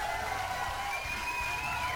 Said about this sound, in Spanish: Un aplauso a todos ellos. Que hacen posible que esta tomada de pelo se siga grabando.